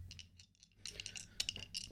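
dice being rolled

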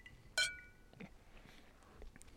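cocktail glasses clinking

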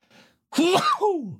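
sneeze

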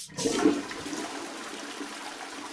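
toilet flushing

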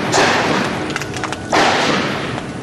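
gunfire

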